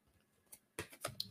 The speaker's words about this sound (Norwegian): Så vi skal trekke et tredje kort, så skal vi se på helheten her òg.